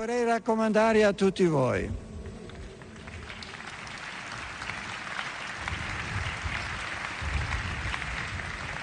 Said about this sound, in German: Wie Sie hören, verehrte Hörerinnen und Hörer, gibt es Beifall, als Papst Benedikt XVI. seinen Vorgänger Johannes Paul II. erwähnt.